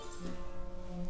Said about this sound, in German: Hilfe. Das ist mein Wecker.